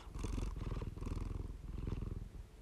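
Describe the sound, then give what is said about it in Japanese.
A cat named Mafu purrs in a steady, low rumbling rhythm, the pulses swelling and easing with each breath, continuous and fairly loud with no talking. “えフゴロゴロ言ってますけ”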